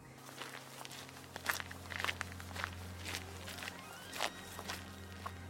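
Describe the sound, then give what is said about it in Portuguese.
Footsteps of a person who has got out of a car walking into the woods of the Teteuturgo forest, at a steady pace, about ten crisp, crunchy steps in a row, with a constant low hum underneath and no one talking. “Depois de muitas horas cheguei até a floresta, desci do carro e entrei dentro da mata.”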